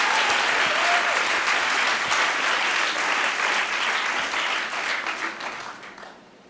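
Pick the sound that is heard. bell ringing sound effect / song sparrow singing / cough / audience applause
audience applause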